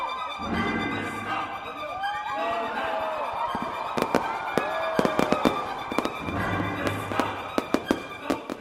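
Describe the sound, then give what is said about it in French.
A rapid series of fireworks bursts officially opening a festival at around 9 o'clock, sharp cracks and pops clustering in quick volleys over a busy crowd murmur with occasional whistling rises. “Plus tard, vers 9h, le festival ouvre officiellement avec une série de feux d'artifice.”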